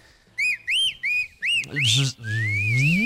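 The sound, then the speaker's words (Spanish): A whistle alert used in a football broadcast to signal switching to another match: four quick, evenly spaced arching chirps, then a longer, louder whistle that swoops upward, backed at the end by a low humming tone. “Esa es como la alerta para decir que estamos cambiando de compromiso.”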